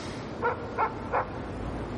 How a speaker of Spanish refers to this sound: Ahí lo vamos a escuchar. Una ráfaga de viento. Un perro ladra.